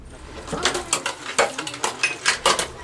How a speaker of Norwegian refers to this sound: tar oppvasken i sin lille leilighet i Rosinja.